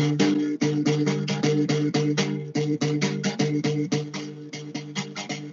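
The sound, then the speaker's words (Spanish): A berimbau played alone and loud: a quick, steady run of twangy struck-string notes that switch between a couple of pitches, with a buzzy rattle on each hit. “Y esto es el sonido de un berimbau”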